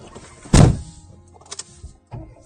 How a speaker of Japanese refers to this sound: 多分ね、車に今乗ったんで、あの、また例のごとく、あの、うるせえミニクーパーに乗ってるんで、またうるさくなってると思いますが、店の中よりかはマシかな。